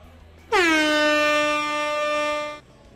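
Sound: air horn blast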